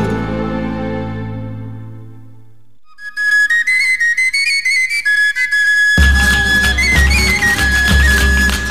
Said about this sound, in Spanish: Bueno, ya estamos aquí de vuelta de haber escuchado esta sevillana tan bonita y que un poco triste por eso.